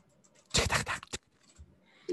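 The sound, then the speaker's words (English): A quick burst of clattering computer keyboard typing lasting about half a second, followed by a few scattered softer taps and a brief final clack, with no talking. “sorry that's my um my keyboard”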